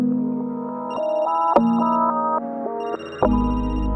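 A mobile phone ringtone plays a bright, stepping electronic melody with sustained tones and a steady low hum beneath, loud, with no one talking over it.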